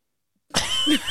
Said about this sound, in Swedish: det hördes inget alls. Nej, men jag, ve jag vek ett papper. Det är diskret. ja, jo. Lät som du knögglade ihop en chipspåse.